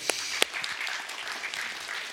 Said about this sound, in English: Hey, happy Father's Day. We have some dads in the room. Give the dads a hand, would you?